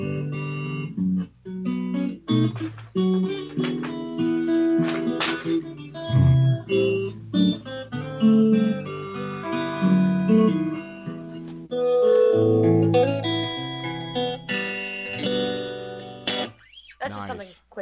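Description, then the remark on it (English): A guitar is played for about eighteen seconds, a run of plucked notes and strummed chords with bright, sustained tones, fairly loud with brief pauses between phrases. “To pick up her guitar for a half a second.”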